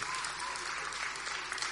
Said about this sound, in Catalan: aplaudiment que sigui molt gran, no sigueu tímids.